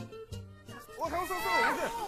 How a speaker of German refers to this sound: Kurz darauf hört sie aus verschiedenen Richtungen Jubelrufe.